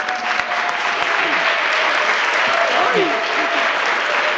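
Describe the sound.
A steady wash of audience applause, dense crackling claps filling the whole stretch at a fairly loud, even level, with faint voices and a few whoops mixed in underneath. The applause marks the Mariners' Director of Marketing presenting the first cheeseburger bobblehead.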